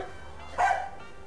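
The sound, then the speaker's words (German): A single short dog bark rising briefly out of a quiet background with a low hum underneath; no one speaks. “Ach du meine Güte, das ist einfach ein Hund.”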